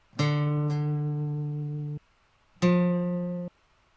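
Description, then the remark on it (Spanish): The two ascending notes of the main motif of Nolan's Batman film score, played on an untuned instrument: a long, steady, buzzy low tone followed after a short pause by a slightly higher, shorter one that cuts off abruptly. “Sí, son dos, son dos notas que suben, o sea, son ascendentes, pero se corta a la subida.”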